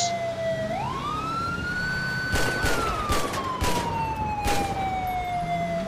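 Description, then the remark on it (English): A rapid series of sharp gunshots, about five or six close together, fired at a driver's car tires, cracks out over a loud, steady wailing siren that rises and slowly falls, with engine rumble underneath. “Hold on, I'm gonna shoot his tires.”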